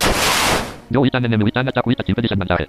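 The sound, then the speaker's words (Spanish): A video game's super-effective attack hit, played when an attack whose type has an advantage strikes an enemy: one harsh, noisy, crunching burst that fades out over almost a second, then someone starts talking. “golpeas a un enemigo con un ataque que, tiene una ventaja con, en tu tipo, por ejemplo, que tu tipo le afecta mucho a ese, eh, a ese enemigo, escucha así.”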